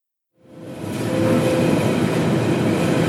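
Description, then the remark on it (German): A Berlin subway train rumbles along steadily, a loud, dense roar of wheels and motor that swells in within the first half second and then holds constant, with no voices. “Nächste Station, Humboldt-Rhein. Achtung, Türen können automatisch öffnen bin in den Berliner Norden, in den Wedding gefahren,”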